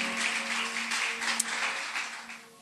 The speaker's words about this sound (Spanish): Dale un aplauso a la palabra del Señor, aleluya.